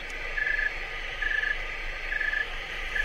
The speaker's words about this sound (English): Uh, I have a snowy tree cricket, and I'll play a song of a warm one, a hot one, and a cold one. And so we'll start off with a warm one. So here's a hot one. And finally, here's a cold one.